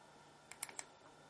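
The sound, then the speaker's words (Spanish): Quick, crisp clicks of a small device's button pressed twice in rapid succession to change its power setting from 20 to 18 watts, fairly quiet, with no voices. “Que queremos cambiarlo a 18, dos clics rápidos.”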